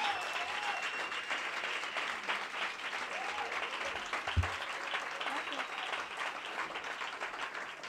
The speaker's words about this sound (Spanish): un fuerte aplauso para ellos, compañeros.